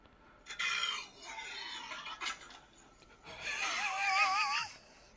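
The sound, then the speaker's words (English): A girl lets out strained, raspy moaning sounds while gulping down Sprite, first in a rough burst, then a longer warbling groan that wavers in pitch before cutting off. “Bro moaned and then her soul left her body.”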